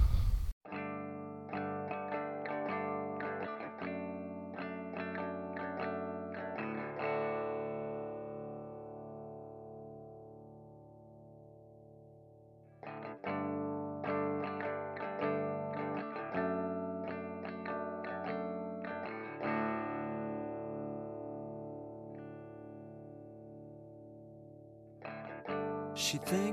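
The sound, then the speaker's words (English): A loud, effects-heavy rock song built on distorted guitars, repeating a chiming chord figure that rings out and decays before starting again; instrumental only, no singing. “I'm going to play that song that got me into him.”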